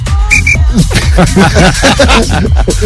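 whistle blown

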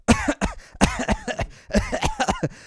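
cough into microphone

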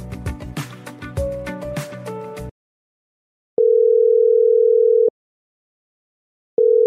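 telephone ringing tone

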